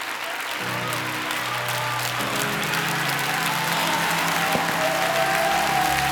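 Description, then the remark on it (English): An audience claps their hands steadily for several seconds, a dense, loud wash of applause with a sustained low tone underneath, likely an organ or keyboard chord. “the Holy Spirit said to me that this is the praise that nails things down that when people clap their hands, even in calamity, when they clap their hands, they're nailing down everything that I have promised them and everything that I have done.”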